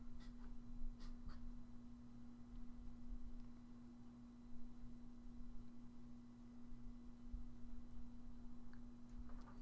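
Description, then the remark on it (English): Faint, intermittent scratching of a pen on paper as answers are written during a quiz, with a steady low electrical hum underneath and no one speaking. “So pens down.”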